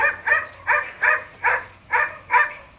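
A dog barks seven times in a steady, evenly spaced rhythm, each bark short and fairly loud, with nothing else going on.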